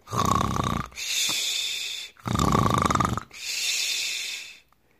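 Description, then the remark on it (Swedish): Loud snoring of a wolf sleeping under a tree in a meadow: two full cycles of a rumbling, rattling inhale followed by a long breathy hiss on the exhale, in a slow steady rhythm with no talking. “När de kom ut på ängen såg de vargen ligga snarkande under ett träd. Han snarkade så högt att grenarna skakade.”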